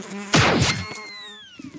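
A loud whoosh sweeps past, then a thin buzzing hum like a housefly trails off, drifting lower in pitch as it moves away. No talking, and a few soft knocks close it out.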